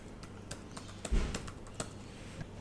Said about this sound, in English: And now all I need to do is just type in the phone number that I want to manually dial. I'm using the top number row on my keyboard. Type it in now.